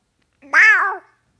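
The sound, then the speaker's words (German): A single drawn-out meow, a person imitating a cat, rising then falling in pitch over about half a second, clear with nothing else around it. “Ja, du bist auch eine Katze. Mach mal dein Miau.”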